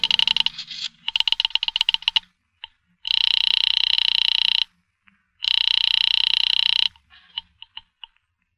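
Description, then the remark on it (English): A rotary phone dial clicks through a quick series of pulses as a call is placed from a pay phone booth, then two long, bright ringing bursts sound on the line, separated by a short pause, followed by a few faint clicks. “I went into a pay phone booth to call her and tell her everything was all right.”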